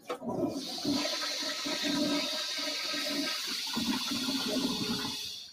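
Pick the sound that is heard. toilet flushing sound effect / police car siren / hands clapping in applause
toilet flushing sound effect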